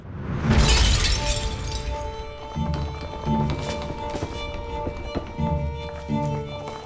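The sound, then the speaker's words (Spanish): A loud crash of four floor tiles in a small prison room shattering as a tunnel breaks through opens the sound, followed by several scattered thuds and clattering pieces, with a faint steady hum running underneath. “En pocos segundos, las cuatro baldosas estallaron en pedazos.”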